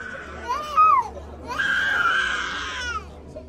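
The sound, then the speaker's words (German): A small child wails in two bursts at a health screening where small children are weighed and measured during a drought: a short rising-and-falling cry, then a longer, strained, high-pitched sob that holds steady before trailing off, loud over a faint background hum. “Erst als wir in Richtung Kindergeschrei gehen, wird es ernst mit der Dürre.”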